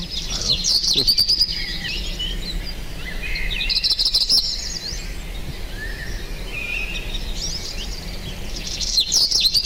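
Small birds chirp in quick, high-pitched bursts, with a few brief clusters of tweets rising over a steady low background hum; no one speaks.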